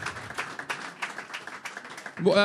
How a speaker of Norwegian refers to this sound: applaus for det.